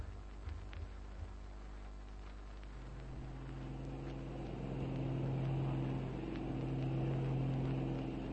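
A steady propeller aeroplane engine, the Mozzie, drones throughout in flight to the scene of a crime, a low rumbling hum that thickens into a stronger, even tone partway through and holds there, with no voices.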